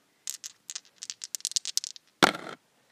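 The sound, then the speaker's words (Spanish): Dice rattle in a quick series of sharp, irregular clicks, then land in one louder clatter that trails off briefly. No voices are heard. “Lancemos los dados y retomemos”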